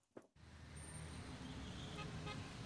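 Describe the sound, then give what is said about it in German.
Steady, fairly loud street traffic heard from a rooftop rumbles continuously after a brief opening, with low engine drone and occasional faint horn-like tones, a city roar. “bei der Anna auf dem Dach, da ist es nicht so still, wie man denken könnte, sondern da ist der Straßenlärm relativ laut”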